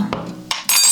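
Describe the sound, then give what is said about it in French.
In a sound experiment, a spoon taps the rim of a glass a couple of times with ringing clinks, then the glass breaks in a loud, bright shattering crash that quickly fades. No one speaks. “J'ai pété le verre”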